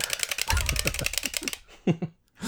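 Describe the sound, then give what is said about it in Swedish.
Rapid, dense clicking of game controller buttons while playing the video game F-Zero, fairly loud for about a second and a half, then a brief pause and a few short, softer sounds. “Så här låter det när Heden spelar F-Zero.”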